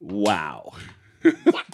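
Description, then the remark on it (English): A voice exclaims briefly, then two short rubbery squeaks and rustles sound in quick succession as a large helium-filled balloon from a big collection of party balloons is squeezed. “a large collection of balloons that have been Build up with helium because we are partying today”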